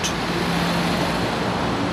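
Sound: city road traffic noise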